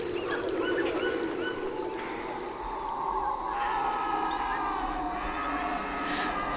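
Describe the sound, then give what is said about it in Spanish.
A dense, steady wall of jungle sound: insects buzzing and trilling continuously, with scattered chirps and calls from animals woven through, fairly loud throughout. “Oigo a los insectos, a los animales.”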